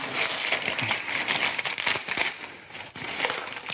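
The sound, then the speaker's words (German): A gift being unwrapped: continuous crinkling and crumpling of paper wrapping being torn open, with dense, sharp rustles and brief crackles throughout nearly four seconds, fairly loud with no talking. “Ich reiße es auf, ne?”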